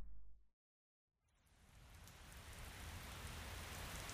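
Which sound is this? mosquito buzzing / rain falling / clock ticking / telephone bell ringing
rain falling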